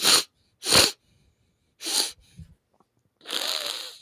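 Three short, forceful sniffs through a nose congested from allergies, then a longer wet, rattling snort, fairly loud with brief pauses between and no talking.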